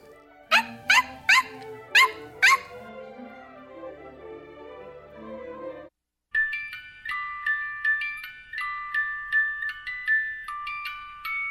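A dog named Bifi gives five quick, sharp barks in a row, then lets out a soft, drawn-out whimper that fades. A light, tinkling chime melody follows.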